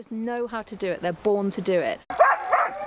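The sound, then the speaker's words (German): A pack of Alaskan Husky sled dogs barks and yips excitedly and loudly, a dense overlapping chorus of high yelps and howling whines that never lets up. “Hunde sind Alaskan Huskies. Ihr Fell ist weniger dicht als bei anderen Husky-Rassen.”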